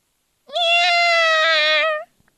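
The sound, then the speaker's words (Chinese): A fat tomcat gives a single drawn-out meow, loud and steady, holding a clear harmonic tone for about one and a half seconds with a slight rise at the start and a gentle fall at the end. “我身后传来了一声猫叫，一只胖胖的公猫跟在我的身后，它用黄色的眼睛紧紧的盯着马蒂斯。”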